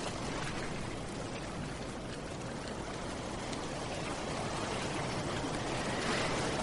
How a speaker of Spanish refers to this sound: El sonido del mar nos acompaña mientras le damos un poquito de caña a nuestro vehículo.